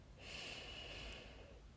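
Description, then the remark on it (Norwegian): A single long, airy breath drawn slowly through the nose or mouth during a guided breathing exercise, soft, lasting over a second with a faint click at the end. No one speaks. “Et par pust til her.”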